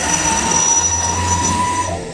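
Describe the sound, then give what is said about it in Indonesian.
A truck rumbles past, a loud, steady roar of engine and road noise with thin high-pitched whining tones running through it, fading slightly at the end. No one speaks. “sorry ada truk”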